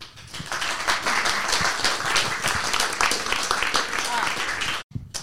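A crowd applauds warmly to welcome a speaker to a talk on abolitionism in Malmö, a dense, steady wash of many hands clapping for several seconds before it suddenly cuts off, followed by a brief bit of sound.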